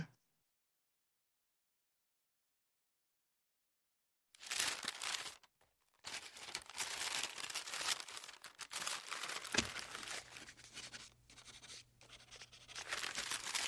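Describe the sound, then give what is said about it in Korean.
A red pen scratches and scribbles across handwritten paper pages in quick strokes as they are read and marked one sheet at a time, with bursts of rustling as sheets shift, continuing steadily after a few seconds of silence; no one speaks. “헤르만은 손으로 쓴 글을 한 장씩 읽고 있다. 빨간색 펜으로 종이에 뭔가를 표시한다.”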